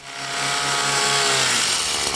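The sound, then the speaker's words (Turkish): A loud, steady petrol engine of a tea-cutting machine drones continuously, its whine and buzzing harmonics holding high and rough at full throttle, with no voices. “Çay keserken kolaylık sağlayan benzinli makinelerse çıkardığı egzoz gazının çaya karışması riski nedeniyle Rize, Trabzon, Artvin ve Giresun'da yasaklandı.”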